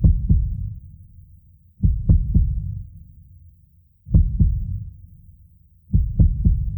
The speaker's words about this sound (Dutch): Die hartslag, wat vet.